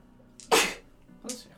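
A single loud sneeze with a brief breathy intake just before it, followed a moment later by a softer, shorter second burst.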